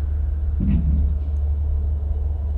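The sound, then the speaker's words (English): A steady, low mechanical rumble drones throughout like heavy machinery running, with a brief muffled thump partway through and no voices. “Sounds like machinery to me.”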